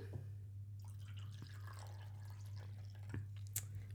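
Red wine, an Amarone, being poured into a glass to top it up: a quiet trickle with scattered drips and gurgles over a steady low hum, ending with a small glassy tap. No one speaks.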